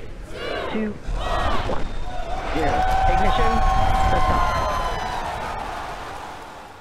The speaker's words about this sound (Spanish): lo que acabas de escuchar es el lanzamiento del cohete Falcon Heavy, el cohete más potente del mundo y diseñado por la empresa SpaceX